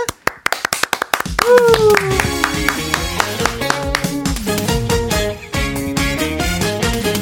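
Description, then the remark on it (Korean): A crowd claps in a steady rhythm, sharp and loud at first on its own, then keeps clapping along in time once a live song performance with a singing voice begins. “자, 다시 박수!”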